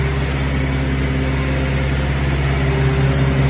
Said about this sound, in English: Because you hear that? That's the only way you get milk. Reefer units, refrigerated trailers.